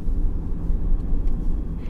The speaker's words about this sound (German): Ich lenkte unseren Wagen auf dem holprigen Weg in die letzte Kurve, kurz bevor der Wald sich lichtete.